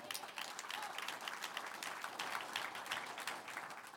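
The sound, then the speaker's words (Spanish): Steady applause for the Lord from an audience fills the whole stretch, a dense, even wash of many hands clapping with no single claps standing out and no voices rising above it. “Un aplauso al Señor.”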